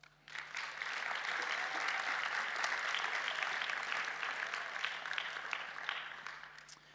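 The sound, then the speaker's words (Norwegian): A crowd claps steadily for several seconds, a dense, even patter of many hands at a fairly loud level, rising quickly at the start and tapering slightly toward the end. “Men gjerne en god klapp.”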